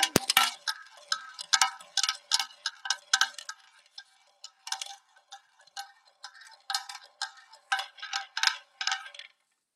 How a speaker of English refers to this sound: All right, here we go. You can hear. You can hear the wheel.